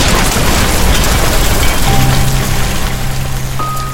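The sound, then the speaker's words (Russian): A loud dynamite stick explosion echoes down a narrow corridor, rolling into a long rumbling, reverberant roar as a concrete ceiling collapses somewhere, with a low steady drone emerging as the blast slowly dies away; no voices. “Эхо разнесло по узкому коридору отзвуки взрыва динамитной шашки, и где-то рухнуло очередное бетонное перекрытие.”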